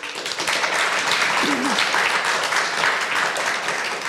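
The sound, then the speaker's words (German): Steady applause from the studio audience of the show Fröhlich Lesen at the start of the evening, a dense crackle of many hands clapping at even loudness throughout, with a brief voice rising faintly from the crowd partway through. “ja, das läuft doch schon 1A. Applaus und noch gar nichts groß gemacht.”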